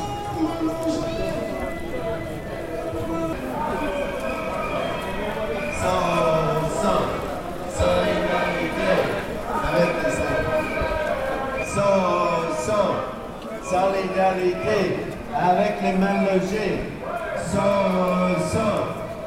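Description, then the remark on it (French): A crowd of demonstrators chants slogans in unison, many loud voices rising together in repeated rhythmic phrases every couple of seconds, such as "so, so, solidarité" with undocumented migrants and the poorly housed. “Plusieurs slogans sont scandés et les interventions continuent aux parleurs soit des gens qui habitent dans des foyers, soit des membres de collectifs de soutien.”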